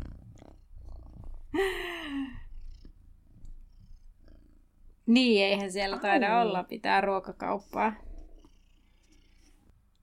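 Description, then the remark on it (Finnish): A cat purrs with a steady low rumble running through the whole clip; a short, high vocal call breaks in early, and a person talks over the purring later. “Kissa on takaisin.”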